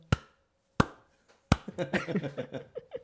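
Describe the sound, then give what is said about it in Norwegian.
A voice imitates the snapping of a dog's jaws as it bit at thread: three sharp, clacking mouth clicks spaced about a beat apart, followed by a stretch of fast, animated talking. “Så kan du sånn skikkelig sånn klappelyd når hun beit, for det er jo tråd så det er ikke noe å ta tak i.”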